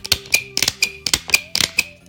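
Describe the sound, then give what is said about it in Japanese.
A staple-free stapler, which binds paper without staples by punching an arrow-shaped cut, crimps paper several times in quick succession. Each press is a crisp mechanical click-and-crunch, with no voices present. “だってさ気持ちいいんだものこれこれすごくない針がないのにさ閉じられるホチキス”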